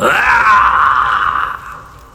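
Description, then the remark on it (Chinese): A man lets out a single loud, strained roar like a beast's, held for about a second and a half before it trails off, as he strains backward pulling man-eating vines out of the ground. No speech accompanies it. “如同野兽一般的怒吼声接连不断的从千图的嘴里吼出来。”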